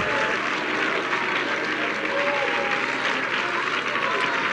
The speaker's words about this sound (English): You may go down clapping. Would you clap your hands with all of your might? And would you lift your voice of praise to the Lord?